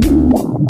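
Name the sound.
stomach growling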